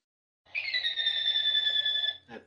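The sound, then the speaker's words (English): A phone alarm or ringtone sounds as one steady, high-pitched electronic tone lasting under two seconds, fairly loud, followed by a brief rustle as it cuts off. “Jesus Christ, turn your phone off.”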